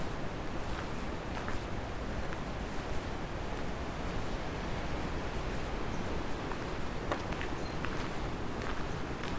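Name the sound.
wind blowing outdoors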